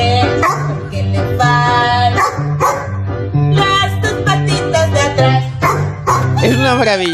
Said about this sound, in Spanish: No me digas que no es precioso este final. Es maravilloso. Pues el que hacía wow era el perro